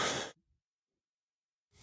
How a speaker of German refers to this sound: So, ich muss mal ganz kurz husten.